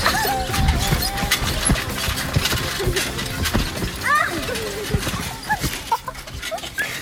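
Four children bounce on a trampoline with repeated thumps, creaking springs and rattling, while high squeals and excited voices rise in and out over the steady bouncing.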